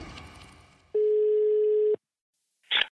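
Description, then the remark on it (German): The ringback tone of an outgoing phone call to a Bild reporter covering 1. FC Köln: one steady, loud, mid-pitched tone held for about a second, then silence before a brief crackling burst, as if the line is picked up. “Und darum rufe meinen Kollegen und Bildreporter für den ersten FC Köln jetzt an.”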